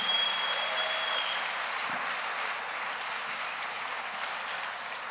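A crowd applauds steadily, a dense wash of clapping that stays full and even for several seconds with no voices over it, fading only slightly toward the end.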